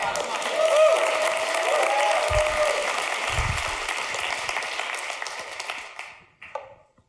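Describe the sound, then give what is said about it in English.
A church audience bursts into sustained applause and cheering, celebrating news that two women were healed of autoimmune diseases. A dense wash of clapping and raised voices holds steady for several seconds before tapering off, with a few scattered claps at the end. “Listen, and one of them, one of them is, yeah, you can celebrate. I'm sorry. Give God praise for that.”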